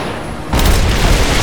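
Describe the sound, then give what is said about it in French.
Over a steady background rumble, a sudden, loud crashing boom erupts and keeps roaring as a trebuchet is fired, like its projectile slamming home. “On est prêt à tirer avec le trébuchet.”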